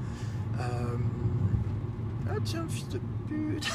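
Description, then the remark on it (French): A car passing by on the road, heard as a steady low rumble of engine and tyre noise throughout, with brief indistinct voices over it. “quand on parlait des connards de la route, je viens de croiser une bagnole qui peut être que le connard euh, à un moment donné, je croisais souvent.”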